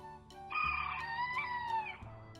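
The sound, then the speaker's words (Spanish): A single hoarse, strained crow from a farm rooster rises and trails off over about a second and a half, fairly loud, with no one talking. “Un día el señor Gallo amaneció afónico”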